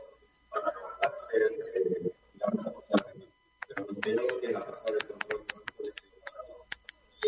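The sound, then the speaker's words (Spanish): Sharp, irregular clicks of typing on a computer keyboard come in quick bursts, fairly crisp, scattered over people talking in the background. “pero no, escuchamos eh, la rueda de prensa, solo tu tecleo.”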